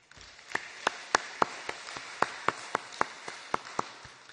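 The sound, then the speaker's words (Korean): An audience at a church service applauds together to give glory to God after a prayer, a dense wash of many hands with sharp, loud claps standing out at a steady, quick rhythm for about four seconds. No one speaks. “우리에게 새날을 허락하신 새 한 주간을 허락하신 우리 하나님께 큰 영광의 박수를 올려드립니다.”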